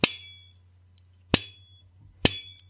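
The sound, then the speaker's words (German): Three sharp metallic twangs as a rubber band, fastened at one point on an egg slicer, strikes its strings. Each is a bright percussive strike that rings briefly and decays, spaced unevenly over a low steady hum. No one speaks. “Aber es gibt einen Eierschneider, ein Gummiband, das an der, an der, an einer bestimmten Stelle festgeschnallt ist und dort auf die Seiten schlägt.”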